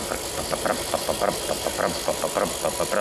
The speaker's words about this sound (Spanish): Llega el loco, le da la pata a la moto, arranca.